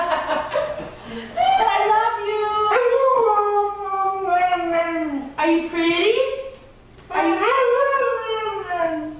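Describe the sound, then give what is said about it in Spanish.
A female husky howls loudly in reply to her owner in a series of long, wavering, rising-and-falling calls with short breaks between them, almost speech-like in rhythm. “una perrita, es una perrita, una husky, la raza.”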